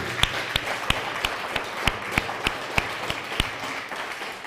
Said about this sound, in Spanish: Fuerte aplauso a Samuel.